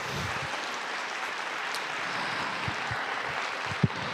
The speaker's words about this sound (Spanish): Y déjame decirte una cosa, déjame decirte, una, si vamos a aplaudirle, vamos a aplaudirle bien. ¡Oh, gloria a Dios!